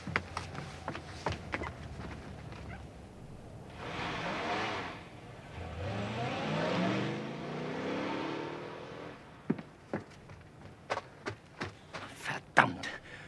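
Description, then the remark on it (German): Some clicks and knocks, then a car engine roars to life and revs, its pitch climbing as it accelerates and pulls away, followed by scattered sharp taps and thuds. “Fahren wir nach, Chef, bevor wir Sie ganz aus den Augen verlieren.”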